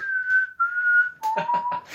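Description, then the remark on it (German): A person whistles a short four-note signal tune, clear, with two long held notes followed by a quicker dip and rise, no talking over it. “gut fände ich auch noch ähm, das Pfeifen aus Tribute von Panem”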